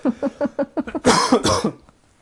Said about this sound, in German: Oh, jetzt habe ich hart gehustet.